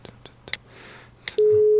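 Someone dials a phone to call a person: a few quick, soft key taps at uneven intervals, then a loud, steady electronic ringing tone that starts abruptly and holds to the end. No one speaks.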